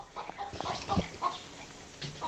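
A hen clucks in short, irregular bursts, with a few sharper calls mixed in over a steady background hiss.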